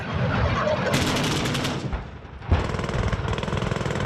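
Loud, continuous gunfire from the Greek military exercise Kolossos on Rhodes, Greece. Rapid bursts of automatic fire are mixed with heavier booms of massed artillery, missile strikes and anti-tank volleys, with a sharp blast near the middle before the rattling fire resumes.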